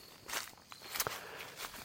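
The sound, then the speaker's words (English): Footsteps crunch through dry fallen leaves under a dogwood tree that is losing its leaves, in the backwoods of a property, a few uneven crackling steps with bright, brittle rustling, fairly quiet and with no talking. “And now I'm crunching some leaves under a dogwood here that is losing its leaves.”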